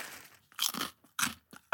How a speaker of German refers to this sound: Darauf esse ich jetzt erstmal einen Mira-Keks.